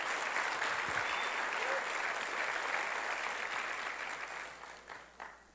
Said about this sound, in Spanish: Denle un aplauso al Señor porque para eso fue.